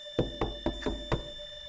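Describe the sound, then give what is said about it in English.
Five sharp knocks rap on a wooden door in quick, steady succession, each a solid, resonant thud resounding through a house, followed by quiet with a faint steady hum. “A loud knock resounded through the house.”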